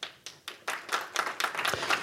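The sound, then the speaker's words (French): Audience applause at a round table on volunteering, welcoming the president of France Bénévolat in Loire-Atlantique; it opens with a few separate, crisp handclaps and quickly thickens into a steady, dense patter of many hands clapping together, with no voices. “On peut l'applaudir.”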